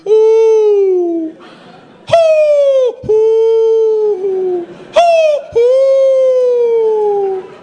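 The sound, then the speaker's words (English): A person's voice imitates an owl hooting by a lake, calling to an owl, with a series of long, drawn-out hoots that slide downward in pitch, loud, separated by brief breaths. “We're talking to an owl.”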